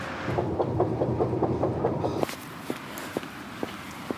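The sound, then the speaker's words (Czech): A metro train closes its doors and departs, rumbling with a steady, rhythmic clatter for about two seconds, then cuts abruptly to a quieter hum broken by a few sharp, isolated clicks. “Dveře se zavírají.”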